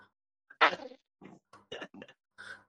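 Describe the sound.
A loud, raspy fart noise bursts out, followed by several shorter sputtering blurts in an uneven rhythm over a couple of seconds, with no talking.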